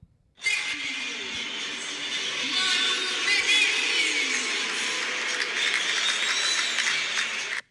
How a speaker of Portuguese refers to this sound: Aí tem a vaia e depois tem uns caras que batem palma ali para palma para dar uma né? incentivada, tá né?